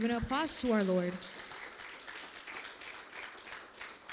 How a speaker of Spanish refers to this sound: Dicen amén. Le pueden dar un aplauso al Señor.